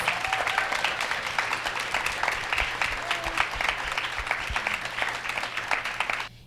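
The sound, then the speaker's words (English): An audience claps steadily in applause for women who shared their stories on stage, a dense wash of overlapping hand claps that stays fairly loud and even for several seconds before fading out at the end. “but let's give these ladies for sharing and being vulnerable up here a round of applause”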